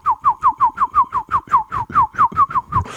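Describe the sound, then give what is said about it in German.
Someone whistles an imitation of a blackbird's song: a quick, steady run of about a dozen short, downward-slurred notes, fairly loud, with no talking. “Du singst so schön wie ein Vogel.”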